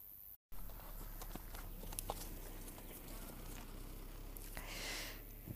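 Hooves of a horse clop past at a walking pace, a series of soft, irregular thuds over steady outdoor background noise, not loud.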